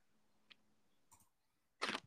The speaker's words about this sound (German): Oh, Stift kaputt. Was war das jetzt? Das war mein Stift. Ich habe den hier auf das, äh, ich habe diesen Notizzettel-Ding so in den Stift geklemmt, dass das so ein Flugzeug ist und dann äh, habe ich damit rumgespielt. Jetzt ist der Stift kaputt.